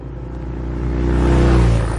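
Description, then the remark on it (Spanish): A motorcycle engine approaches as the rider arrives at a scrapyard and stops by the wire fence, its low droning hum growing steadily louder over a couple of seconds before easing off slightly at the end. No one speaks. “El profesor llega en moto hasta el desguace. Se detiene junto a la alambrada, apaga el motor y pone la pata de cabra.”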